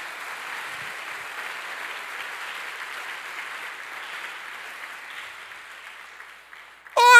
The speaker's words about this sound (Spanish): Dele fuerte ese aplauso al Señor, así no le haya gustado.